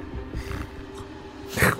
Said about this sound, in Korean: 어디서 고, 코끼리 소리가 들리네요